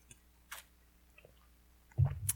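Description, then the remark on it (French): A small sip from a drink: a few quiet wet lip clicks, then a short, fuller gulping sound at the end. No one speaks. “Prendre une petite gorgée.”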